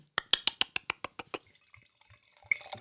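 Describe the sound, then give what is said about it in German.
Red wine glugs from a bottle into a glass in about nine quick, evenly spaced pulses, then tapers into softer trickles and a few faint drips, with no talking. “Ich freue mich ja immer, wenn ein Rotwein kommt. Komm, in meinem, kommt Glas, ja nicht so in meinem Glas ist Rotwein.”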